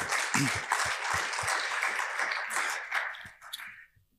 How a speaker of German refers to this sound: Bitte einen Applaus für ihn